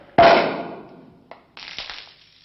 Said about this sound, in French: le bouchon pète comme un pistolet dans un téléfilm de Zorro.